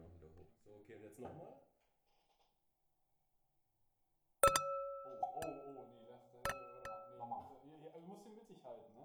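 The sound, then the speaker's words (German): A bright clink of wine glasses touching rings out with a lingering tone, followed by a couple more sharp clinks, while people's voices murmur around it before and after. “Prost. Prost. Prost. Prost.”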